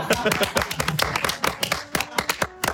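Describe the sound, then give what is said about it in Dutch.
A small group clapping together for the audience, a dense, irregular patter of sharp hand claps that stays fairly steady and loud throughout, with some voices mixed in underneath. “Dat wij applaudisseren voor het publiek.”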